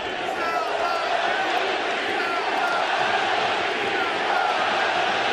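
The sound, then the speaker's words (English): A large stadium crowd at the Coliseum during a baseball game roars loudly and steadily, a dense wall of cheering and shouting voices that holds at high volume throughout, with no single voice standing out, as the Rays try to open the scoring. “heard the uh, crowd go silent and now getting very loud at the Coliseum.”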